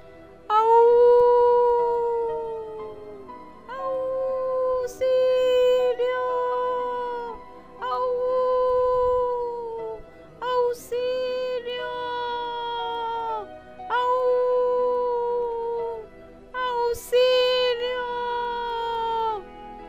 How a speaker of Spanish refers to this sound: La chica pataleaba y chillaba a más no poder y ya empezaba a cortar las lanas con sus afilados dientes cuando el lobito negro, que por una ventana había espiado lo sucedido, empezó a aullar desesperado.